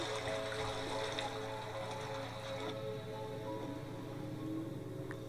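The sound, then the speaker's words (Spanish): A husky splashes around in water, throwing itself in because of the heat, a continuous churning, sloshing wash with a low steady hum underneath, fairly quiet and constant throughout, with no voices. “siento mucha pena por el, el husky. que está desesperado eh, tocando el está agua.”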